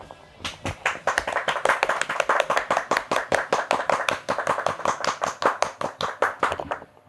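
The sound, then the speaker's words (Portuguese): A steady round of applause lasting several seconds, the claps sharp and evenly paced at roughly four per second, like a small group clapping in rhythm, with no talking over it. It congratulates the first game of the night at the Superliga de Futsal. “Primeiro jogo da noite, os parabéns, de novo uma salva de palmas.”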